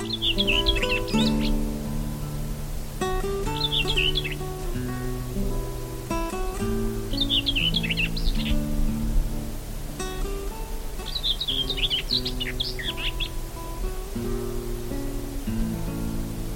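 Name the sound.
common whitethroat song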